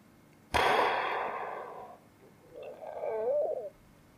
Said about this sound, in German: Das war ein kleiner Rülpser.